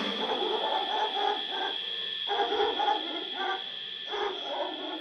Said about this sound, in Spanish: A lo lejos, un perro.